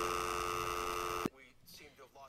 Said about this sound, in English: It's just the dial tone that does it for me. Like it's just so blatant.